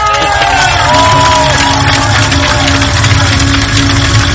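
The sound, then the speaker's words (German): A stadium crowd roars as the Unicorns team runs in, with stands full at both ends and a green hill opposite packed with fans: a dense, steady wall of loud cheering with a few high whistles cutting through early on, holding constant throughout. “Jetzt laufen die Unicorns ein, jetzt ah. wird es eh gleich ein bisschen laut.”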